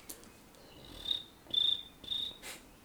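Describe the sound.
A person imitates a cricket: three high, thin, whistling chirps in a steady rhythm, each lasting about half a second, fairly quiet, with no talking.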